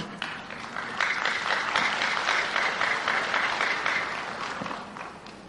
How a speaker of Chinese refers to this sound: 这个鼓掌很勉强哈，这非常勉强啊！